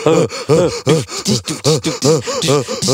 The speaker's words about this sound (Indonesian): Pada ngos-ngosan itu. Iya, ngos-ngosan karena kita semangat banget ya.